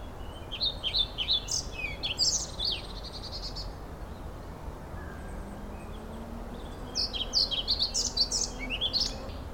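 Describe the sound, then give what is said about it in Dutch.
A pied flycatcher sings two short bursts of bright, rhythmic chirping song, a few seconds apart, over a steady low outdoor rumble with no voices. “Het is de bonte vliegenvanger.”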